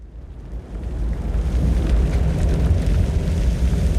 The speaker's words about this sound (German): Ein Geräusch, das in Kanada diesen Sommer viele Menschen fürchteten. Ein Wald, der brennt. So schlimm wie in diesem Jahr war es dort noch nie seit Aufzeichnungsbeginn.